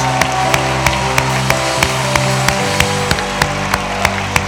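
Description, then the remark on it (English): A church audience claps its hands together in praise of God in a steady, even beat, about three sharp claps per second, over a loud sustained musical backdrop with no talking. “Put your hands together and give the Lord praise.”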